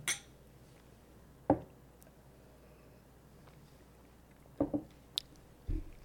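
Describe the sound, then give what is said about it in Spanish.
Someone sips whisky from a glass, with a few soft clinks and knocks of the glass spread across a quiet moment. Faint sipping sounds, no talking. “Vamos a probarlo. Salud, finalmente.”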